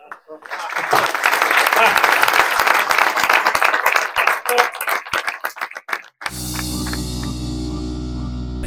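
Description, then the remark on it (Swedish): At the close of a representatives' meeting, the attendees break into dense, sustained applause for themselves lasting about six seconds, thinning into scattered claps before cutting abruptly to a steady low hum. “Får ni köra en applåd för er själva?”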